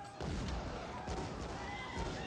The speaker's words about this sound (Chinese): 值班护士听到枪声赶过来，提醒他这么大年纪了，别看一些打打杀杀的电影，电视声音关小一点。